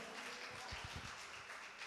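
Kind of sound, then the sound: crowd, audience applauding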